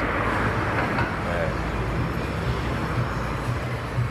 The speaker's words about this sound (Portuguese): Apesar de isso está mudando de forma relativamente acelerada, e que agora tem essa confluência de carros para provar isso.